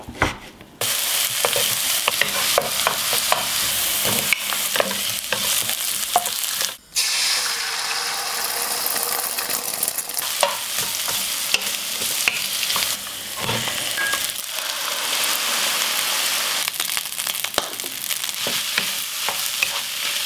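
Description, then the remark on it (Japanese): Fried rice made with fresh lettuce stir-frying in a hot pan, a loud, steady sizzle with scraping clatter of the spatula tossing the rice, continuing for about twenty seconds with no voices. “今朝は新鮮なレタスを使ったチャーハンのいい音それではお聞きください”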